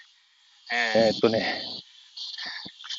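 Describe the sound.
A steady, high-pitched cicada drone hums continuously in the background while a person speaks briefly over it, the insect buzz holding an even level from start to finish.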